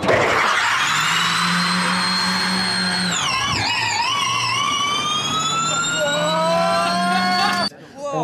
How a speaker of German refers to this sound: ein rein elektrisches Fahrzeug, das aber mit vier äh, Formel E-Motoren ausgestattet wurde. Wow. Und 1200 PS hat.